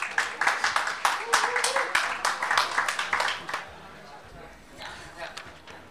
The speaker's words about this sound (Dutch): Geef haar een daverend applaus.